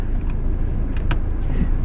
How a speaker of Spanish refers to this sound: Hoy voy a parar en un sitio y como tengo que esperar un poco, voy a parar el coche. Así que a lo mejor se oye incluso mejor.